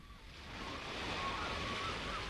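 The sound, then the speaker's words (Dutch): Surf from an incoming tide washes against a rocky shore below 60-metre-high rocks, a steady hissing rush that swells gradually louder and then holds. No voices are present. “Benen en armen gespreid, terwijl de opkomende vloed aan zijn voeten knaagde.”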